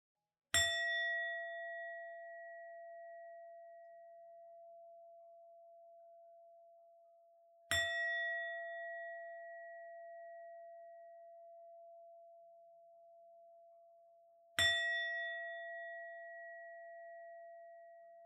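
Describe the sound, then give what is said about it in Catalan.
A meditation bowl is struck three times at slow, even intervals, each strike blooming into a clear, sustained ringing tone that lingers and fades gradually between strikes, with no voices present. “Escolta el so del bol”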